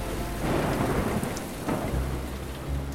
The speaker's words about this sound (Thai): ไม่นานนัก บริเวณนั้นก็เกิดฝนตกหนัก